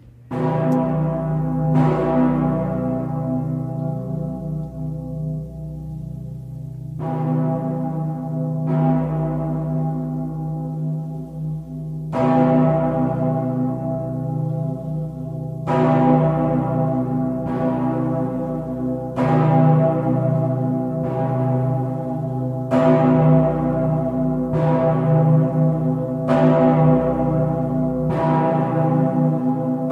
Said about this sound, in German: die größte schwingend geläutete Glocke der Welt